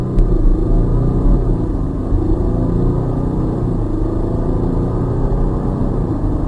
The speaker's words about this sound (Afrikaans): So klink die Jeep se agspoed wanneer jy hom heeltemal wegtrap.